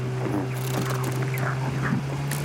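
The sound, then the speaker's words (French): A snowmobile engine idles steadily, a constant low droning hum with an even tone that holds level throughout, with faint scattered noises over it and no voices. “C'est quand même la première fois que je vois un moteur qui fonctionne avec des croûtes fondues de raclette en guise de carburant.”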